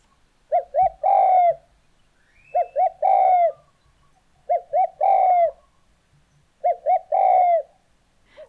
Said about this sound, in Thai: ก้ได้ยินไปเมื่อกี้ก็คือเสียงของนกเขาใหญ่ค่ะ แล้วนกเขาใหญ่เนี่ย ไม่ได้ร้องแค่จุกกรูนะคะ ยังร้องจุกจุกกรูด้วยล่ะค่ะ